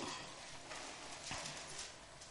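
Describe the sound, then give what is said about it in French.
Several people at a church sermon leaf through their Bibles at once, turning to 2 Chronicles chapter 16: a soft, continuous papery rustling with a few brief swells as pages flip, heard at a moderate level with no one speaking. “Oh, j'entends des bibles tourner, c'est fun.”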